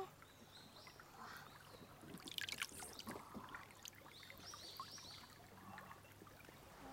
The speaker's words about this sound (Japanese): ちょっとこう苔水草藻ですね藻が生えてるグリーンの綺麗な藻があってその間から湧き水がこんこんと流れていてすごい神秘的いやお水冷たい